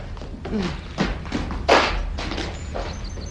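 Chairs are carried and set down with a series of hollow thuds and knocks, one heavier clunk standing out, against a faint background murmur.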